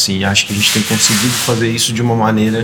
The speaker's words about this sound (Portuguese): Esse ruído que você está escutando ao fundo vem de dois militantes usando aquelas fitas adesivas grandes para embalar material de campanha na sala ao lado.